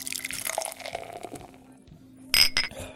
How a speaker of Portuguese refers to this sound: Só tomar mais um pouquinho aqui para molhar a garganta e aí se mandar bronca.